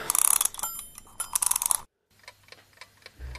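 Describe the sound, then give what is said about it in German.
An alarm clock timer is wound for a quiz with a rapid, loud ratcheting burst of clicks and a bright metallic ring, then after a short pause it ticks softly and steadily. “Ziehen wir doch mal den Wecker auf.”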